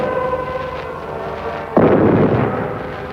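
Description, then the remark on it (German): A sustained tonal hum, like singing, is suddenly broken by a loud bang of fireworks rockets at midnight on 1 July at a liberation celebration in Trier; it booms and rumbles on, fading slowly over the following second. “Sie sangen Großer Gott, wir loben dich und dann knallten die Raketen.”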